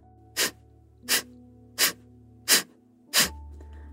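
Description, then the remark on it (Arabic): Five sharp, forceful puffs of breath pushed out through the nose in a steady, even rhythm, each short, over a low, sustained background hum; exhalations in a breathing exercise, with the belly pushed in on each exhale and no deliberate inhale between them. “نبدأ بأنه ناخد شهيق ومع الزفير رح يطلع صوت الزفير زي هيك”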